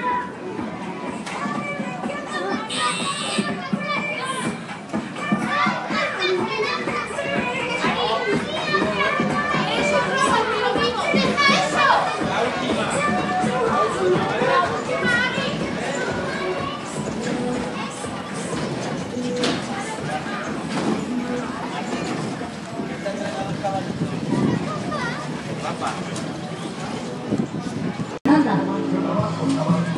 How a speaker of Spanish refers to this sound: Ya y en ningún pueblo pueden faltar los autos de choque y las barracas.